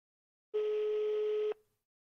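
A single steady telephone tone as someone phones their father: one flat mid-pitched beep lasting about a second, then stopping abruptly. It plays alone and fairly loud, with no voices.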